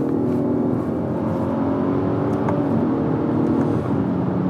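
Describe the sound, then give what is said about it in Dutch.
A BMW 540i engine drones steadily for several seconds, a loud, even rumble with layered humming tones that shift slightly in pitch as it revs, and no voices. “Ja, de BMW 540i.”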